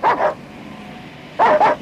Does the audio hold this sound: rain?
no